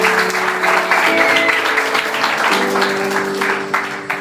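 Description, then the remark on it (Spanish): An audience claps steadily in a loud, dense burst of applause for the Lord one afternoon, with a sustained organ-like chord holding underneath and shifting pitch midway through. “¿Cuánto pueden dar un fuerte aplauso al Señor esta tarde, por favor?”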